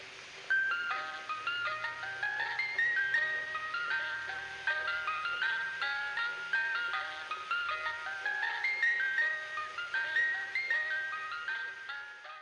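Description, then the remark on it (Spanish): A tinny, bright electronic jingle, the music played by a popsicle (paleta) cart, plays a repetitive chiming melody continuously, steady and moderately loud with no voices. “pero reflexioné y dije, no, no creo, porque la musiquita que traen los coches de paletas es muy macabra.”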